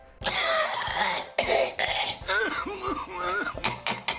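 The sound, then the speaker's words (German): Several harsh, loud coughs in quick succession, some with a strained, voiced rasp, with brief gaps between bursts. “Ich huste den ganzen Tag.”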